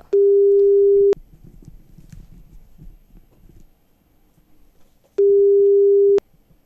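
Two long, steady electronic tones about four seconds apart, the ringback of an outgoing phone call placed to Yle's head of ethics on the Radio Suomi show Jyrkin sometoimisto, loud and clear with a low murmur of room noise between them.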